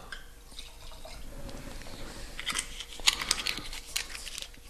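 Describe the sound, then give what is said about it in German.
An entry-level Gutsriesling wine is poured into the left glass: a soft, steady trickle of liquid with small splashes and bright, glassy drips rising toward the end. It's fairly quiet, with no one speaking. “Mache jetzt ins linke Glas einen Anstiegswein.”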